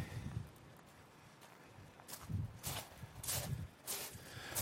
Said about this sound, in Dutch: Je hoort, ik loop langs zee.